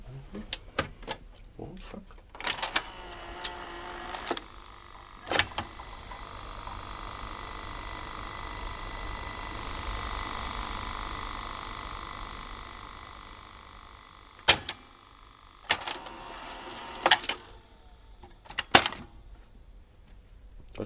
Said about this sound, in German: Gut, kann ich das Geräusch von dem Videorekorder mal aufnehmen, ohne ja. dass wir den über den, ja, klar, den Monitorton ja, hören.